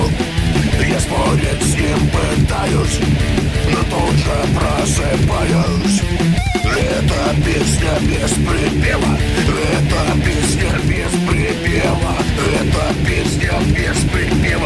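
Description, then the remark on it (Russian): A male singer performs a song from a 1980s children's film over a full, steady band accompaniment, the music loud and continuous throughout with a repeated sung line. “эта песня из фильма вышел гораздо раньше”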